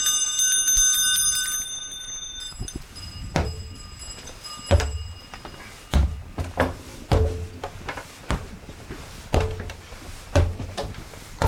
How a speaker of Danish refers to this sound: Og resultatet var, at folk blev simpelthen kørt ned af de der kaneheste. Så kom der en lov, der sagde, at hesten skulle have pjæller på, således at man kunne høre, at de kom for at advare fodgængere.